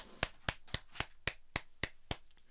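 Eight sharp, evenly spaced hand claps in a steady rhythm, about four per second, fairly quiet and crisp, with no voices.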